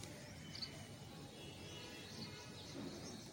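Faint birds chirp now and then in the morning at sunrise over a soft, steady background hiss, with a few scattered high tweets and no talking.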